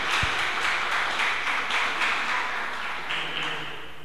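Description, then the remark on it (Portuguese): An audience applauds the Lord steadily, a dense wash of many hands clapping at once that stays loud and sustained throughout, with no voices standing out. “Pode aplaudir ao Senhor.”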